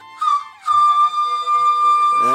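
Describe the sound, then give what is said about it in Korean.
A person performs a party-trick imitation of a locomotive whistle with their voice: a short high hoot, then a long, loud, sustained blast, ending in a rough throaty burst. No words are spoken. “개인기로 기관차 소리를 낼 수 있는 극강의 하이텐션을 가진 분이에요.”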